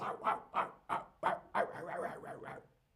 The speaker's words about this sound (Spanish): Guau, guau es como se escribe en español el sonido que hacen los perros.